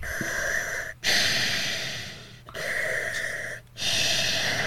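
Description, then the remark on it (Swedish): A voice imitates heavy, mechanical breathing through a respirator mask: long, hissing inhales and exhales in a slow rhythm, loud, with brief pauses between breaths. “Så till slut så kommer jag ju vara Darth Vader och börja prata i en sån här jävla andningsmask.”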